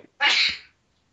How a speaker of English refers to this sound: Bless you, … says.